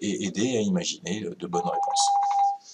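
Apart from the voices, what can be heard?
telephone ringing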